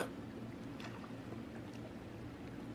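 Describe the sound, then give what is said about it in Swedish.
A car engine idles with a steady, low rumbling hum that holds constant throughout, with a faint hiss of background noise above it and no voices. “Det har bara gått en bit in men eh, ljuset fladdrar och du hör den där, hör fortfarande bilen på tumgång där.”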